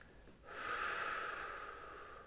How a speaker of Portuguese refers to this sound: Agora faz uma respiração profunda pelo nariz e solta pela boca.